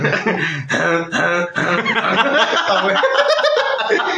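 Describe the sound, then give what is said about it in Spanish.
A voice imitates a harsh, barking dog-like cough: loud, rough bursts in quick succession that blur into strained, laugh-like vocal sounds for a few seconds. “comenzó a toser a lo vergas. No, se, ahogó con, con, su saliva. Tos de perro”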